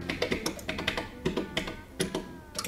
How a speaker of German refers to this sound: Über Kabel sind sie mit einem flachen Apparat verbunden, einem kompakten Gerät mit ein paar Tasten und einem Zeigerfeld. Die Arzthelferin tippt eine Tastenkombination.